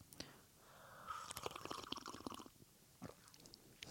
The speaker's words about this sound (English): Um, I don't really gurgle like that or slurp like that, but I did that. I did that for you.